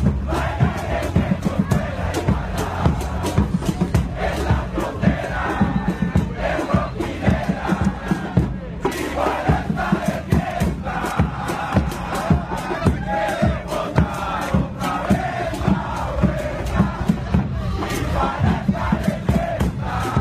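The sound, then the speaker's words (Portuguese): A large crowd of supporters of the Mexican football club Tijuana loudly chants a club song in unison, with rhythmic claps or stomps driving the steady beat throughout. “É, mas a gente vai ouvir o Tijuana cantar a torcida do clube do México, quase Estados Unidos.”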